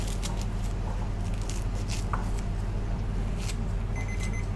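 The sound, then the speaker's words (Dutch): Small mini scissors snip through paper in a few short, crisp cuts spaced irregularly, over a steady low background hum with no one speaking. “Niet in het papier knippen”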